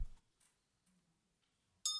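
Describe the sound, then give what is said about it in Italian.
A small bell rings once near the end with a bright, sustained metallic tone and shimmering high overtones, after a few soft, faint knocks and a low thump in near silence. “Questo oggetto qua, che cos'è? Una campana.”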